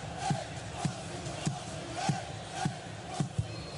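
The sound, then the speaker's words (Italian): A football fan shouts close to the microphone in loud, rhythmic bursts about every half second, over a steady roar of stadium crowd noise during a Juventus versus Sporting football match. “Eccola, chiedo scusa, chiediamo scusa per l'intro, l'intromissione di questo tifoso.”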